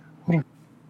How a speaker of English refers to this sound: coughing real quick